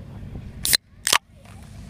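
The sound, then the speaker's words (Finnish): An aluminium can of long drink is cracked open: two sharp, loud bursts of crisp fizz less than half a second apart, over a low, muffled background rumble. “mä avaan sen, se kuulostaa tältä.”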